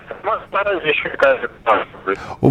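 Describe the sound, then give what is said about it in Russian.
A voice comes through a thin, narrowband phone line, garbled and hard to make out, with a rough noisy crackle and brief bursts of interference breaking in throughout. “я прошу прощения, какая-то, какая-то, какие-то жуткие помехи идут.”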